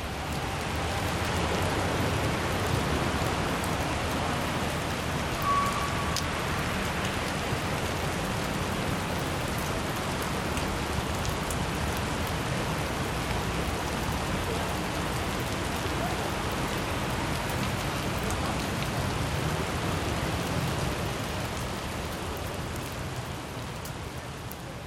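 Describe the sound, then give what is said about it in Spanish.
Steady rain falls across Mexico City during the rainy season, a dense continuous hiss with drops spattering on hard surfaces, holding an even, moderately loud level throughout with no voices. “La temporada de lluvias es un recordatorio puntual y obstinado de sus orígenes.”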